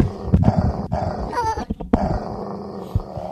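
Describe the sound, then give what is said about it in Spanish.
A dog growls low and continuously, with a few sharp bark-like bursts breaking through and a brief higher whine in the middle, no voices present. “Este es mi perro,”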